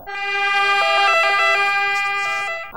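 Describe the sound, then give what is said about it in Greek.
A loud ambulance siren wails steadily, its two-tone pitch stepping up and down in a repeating pattern, with a faint road rumble underneath and no voices. “Ήρθε το ασθενοφόρο πράγματι μετά από λίγη ώρα.”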